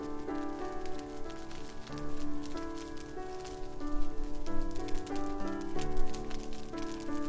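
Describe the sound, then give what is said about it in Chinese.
A fireplace fire crackles steadily with soft, irregular pops and snaps, set beneath calm, sustained music chords that shift slowly; no one speaks. “你能够持续听到壁炉里火苗跳跃的声音”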